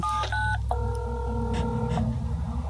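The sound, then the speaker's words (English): A one-year-old's toy cell phone plays electronic button tones: two short beeps in quick succession, then a longer sustained tone, over a steady low background hum. “That's what sound when little daughter's cell phone makes.”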